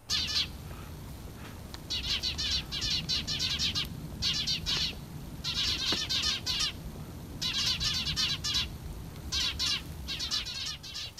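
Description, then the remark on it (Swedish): Several Eurasian tree sparrows chirp busily in a bird cherry tree in dense, overlapping bursts of short tweets, with a low rumbling background throughout and no talking. “Han ja, känt igen pil, Pilfinkar som sitter och konverserar i, i, i häggen.”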